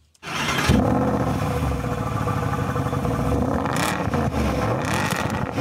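An SLS AMG V8 sports car engine fires up and settles into a deep, rumbling idle with a loud, throaty burble and faint mechanical clatter, no voices present.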